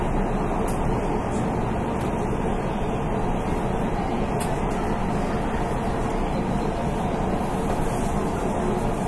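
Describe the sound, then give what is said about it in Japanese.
A steady, continuous rumble of a Nishitetsu 8000 series limited express train bound for Omuta, running from Fukuoka to Kurume, heard from inside, with dense low-frequency roar and a constant hiss; no one speaks. “西鉄8000系 特急 福岡から久留米まで”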